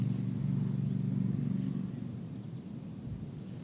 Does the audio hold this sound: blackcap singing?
no